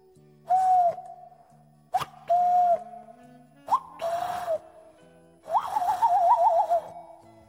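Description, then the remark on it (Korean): A person imitates a cuckoo's call with a few hooting vocal bursts, fairly loud. The last one is longer and warbling, over a faint steady background hum. “제가 뻐꾸기 소리 들려드릴게요.”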